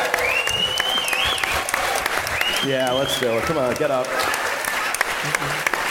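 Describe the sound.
A large audience applauds steadily and loudly throughout, a dense wash of clapping, while voices call out over it and a high whistle rises briefly through the noise.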